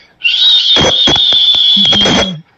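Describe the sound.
A voice imitates the high whistling whine of a Formula 1 car engine heard in the background of Verstappen's and Checo Pérez's team radio: one steady, piercing whistle held for about two seconds, with crackly bursts and a low hum underneath.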